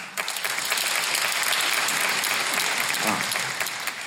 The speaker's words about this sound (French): Par applaudissement, qui a 22 ans ou moins dans la salle